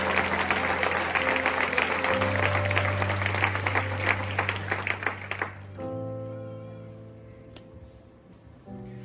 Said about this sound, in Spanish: Si vas a aplaudir a Jesús, por favor, hazlo con todas las fuerzas de tu corazón.